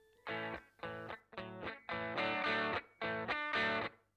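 A rock recording plays loudly, with distorted electric guitar chords struck in a steady, chugging rhythm of short bursts and no one talking over it.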